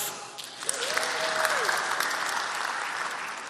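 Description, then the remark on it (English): Steady audience applause, a dense wash of many hands clapping that swells quickly and holds at a loud, even level for several seconds with no talking over it. “If you know these and you follow them too, you can applaud.”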